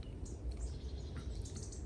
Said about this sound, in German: ja, ich bin gerade draußen in der Natur, die Vögel zwitschern, die Sonne scheint, der Himmel ist strahlend blau.